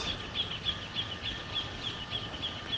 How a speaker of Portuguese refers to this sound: Dá para ouvir, né? O som dos pássaros, das cigarras, da cachoeira.